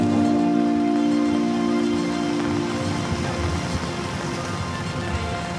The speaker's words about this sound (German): Jetzt stehen wir hier am Tangeli-Brunnen äh, vor dem Schweizer Architekturmuseum und der Kunsthalle. Mhm. Und was man hört, ist nicht nur das Plätschern des Brunnens, sondern auch die Regentropfen am Regenschirm.